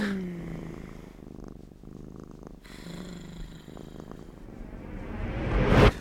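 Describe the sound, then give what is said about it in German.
A cat purrs in a steady, rumbling rhythm of low buzzing breaths, swelling louder toward the end with a brief rustle as it shifts. “Ich mache die Augen zu und ich höre nur noch ihre Schnurren.”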